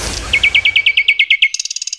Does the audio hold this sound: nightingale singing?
yes